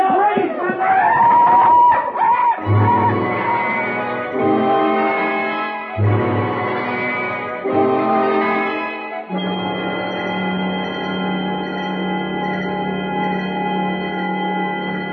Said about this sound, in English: So that's a peacock, huh? Are they always like that? Mean, loud? It's hard to say. They're very unpredictable.